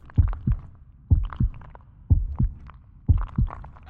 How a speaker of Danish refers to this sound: Men i virkeligheden har vi så super hørelse, at hvis vores hørelse var ret meget bedre, så det eneste ekstra, vi ville høre, det var vores eget hjerteslag og blodet, der løb igennem vores blodårer.